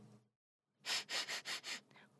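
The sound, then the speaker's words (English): Five quick, breathy sniffs in a steady rhythm, fairly loud, as the story character Tony sniffs the air deeply at a smell, following the tail end of a voice and a short silence. “Tony took a deep sniff.”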